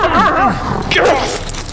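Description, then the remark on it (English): Wraith, a guard dog in a game fight, barks and growls in a quick, loud burst of rising and falling yelps and snarls, lasting under two seconds with no voices. “Wraith the guard dog needs a 14 to penetrate Cole's armor.”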